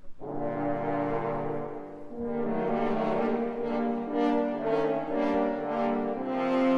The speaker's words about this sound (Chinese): 三只法国号代表大野狼。